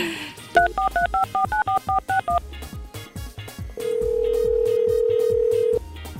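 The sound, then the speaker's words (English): A phone number is dialed: about ten quick two-tone keypad beeps in a brisk run, followed by a long steady tone, all over a thumping background music beat. “Let's call and yell at some people with some good news.”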